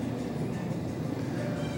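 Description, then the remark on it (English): A steady, dense engine rumble like a bunch of motorcycles idling or passing together, with a continuous low growl and no breaks, fairly loud and filling the whole moment. “I don't have anything in front of me except for, uh, dude, a recording device, a bunch of motorcycles is what it sounds like.”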